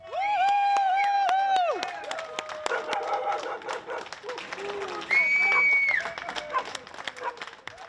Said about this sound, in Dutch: Ja, 17 maart om 8 uur dan gaan de mensen voor ons applaudisseren. Dat klinkt zo.